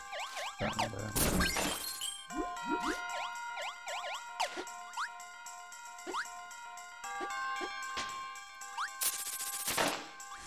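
Odd, chiming bell music from a video game, with ringing tones, quick upward-sliding notes and a few loud crashing bursts breaking through. No one speaks over it.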